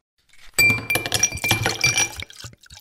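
Several glasses clink together in a toast in a quick flurry of bright, ringing taps lasting a second or two, their chimes overlapping before the sound dies away. No one speaks.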